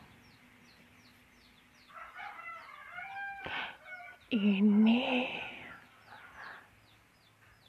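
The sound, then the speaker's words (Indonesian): A neighbour's chickens near a home cluck while a rooster lets out a loud, drawn-out crow in the middle, with a brief spoken word at the start and faint chirping in the background. “ini kayaknya ayam ayam di dekat rumah aku ini kayaknya mau banget masuk dalam podcast oke udah diam nih diam ya Allah”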